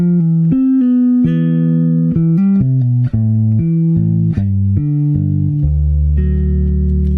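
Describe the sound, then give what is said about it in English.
An electric bass guitar plays a steady line of sustained low notes, stepping from pitch to pitch with no other instruments or voices, loud. “I love the sound of this bass.”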